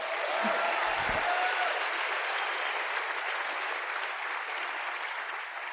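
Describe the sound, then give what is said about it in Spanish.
A crowd applauds the speaker's mentor steadily for several seconds, a dense wash of many hands clapping at a fairly constant loud level that eases off slightly toward the end, with no talking over it. “si aplaudan, aplaudan con ganas.”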